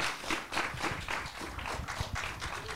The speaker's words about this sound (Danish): Så jeg synes, du skal rejse dig op, og så synes jeg, at folk de skal klappe,